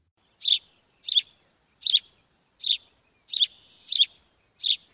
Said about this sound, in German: Welcher Vogel könnte das sein? Die Blaumeise oder der Spatz? Genau, diesmal ist es der Spatz.